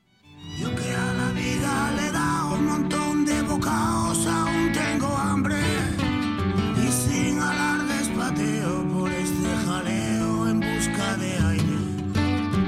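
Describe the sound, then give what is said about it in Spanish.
An acoustic rock song by Spanish rock musicians who joined to record it during the lockdown, with a singing voice in Spanish over strummed guitars, playing steadily and fairly loud from start to finish after a brief fade-in. “y claro, este, se unieron para hacer esta canción en el confinamiento, como para dar un poco la imagen de que el rock español pues seguía unido pese a, pese a la distancia.”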